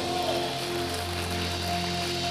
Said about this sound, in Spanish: Aplauda al Señor.